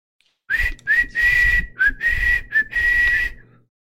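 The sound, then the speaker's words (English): A whistle blown loudly in a series of short, shrill blasts, about six in quick succession over a few seconds, steady in pitch with a breathy edge and no voices. “a whistle sound.”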